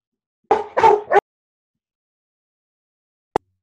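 A dog lets out three quick barks in a rapid burst, then falls silent apart from a single brief tap near the end.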